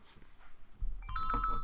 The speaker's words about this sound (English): Oh, that is a phone number, phone call.